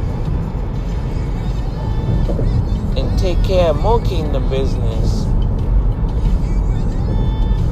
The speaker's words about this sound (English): I am on the highway. This car driving like 40 miles per hour on a highway that says 65.